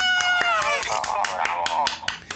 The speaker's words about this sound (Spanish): como soy solito, pues aplauso.